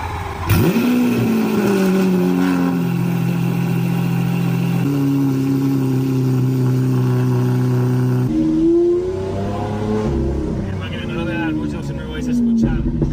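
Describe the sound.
A car engine runs at a steady, loud drone, its pitch shifting up and down as it revs a few times, with some voices heard faintly over it; the car is one whose battery drains very easily, even at rest.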